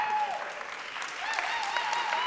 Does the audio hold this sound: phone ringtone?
no